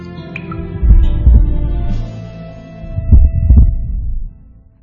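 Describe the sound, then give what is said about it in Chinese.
A man's heavy, deep heartbeat, heard inside a deep cave, thuds in two paired lub-dub beats with a pause between them, booming and low over a soft, steady hum, with no voices. “一年过去了，男儿始终无法做得第三件事，因为无论他如何努力，在这个深深的洞穴里面，除了水滴，他唯一能听到的，只是他自己越来越重的心跳。”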